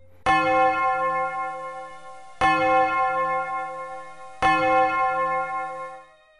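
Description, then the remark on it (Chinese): A deep bell from a distant clock tower tolls three times at an even, slow pace, each strike ringing out with rich, lingering overtones that fade before the next. No voices are present. “远处的钟楼传来了一声低沉的钟声。”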